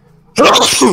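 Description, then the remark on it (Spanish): A single loud sneeze bursts out abruptly after a moment of near silence, a sharp explosive blast of breath with a brief voiced tail. “Salud.”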